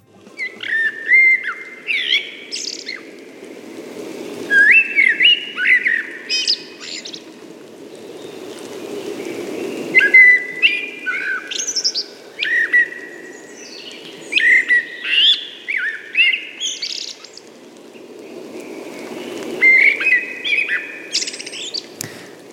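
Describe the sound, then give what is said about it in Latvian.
A wood thrush sings repeated flute-like phrases ending in ethereal, buzzy trills, each phrase separated by short pauses, clear over a soft background rush like flowing water. “ļoti skaista meža strasda dziesma”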